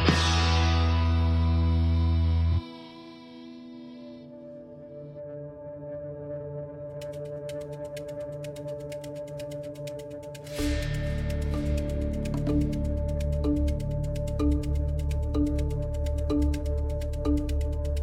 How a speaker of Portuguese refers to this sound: Uh, logo depois da vinheta do editor aqui do Ciencião.